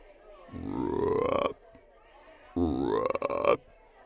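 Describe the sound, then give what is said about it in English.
Two deep, drawn-out croaks, each about a second long with a rising, gurgling pitch, separated by a short pause; a human voice imitating a giant toad's ribbit, fairly loud, in a tabletop role-playing story as the druid Rhea transforms into a giant toad. “The deep, terrifying ribbit of a giant toad.”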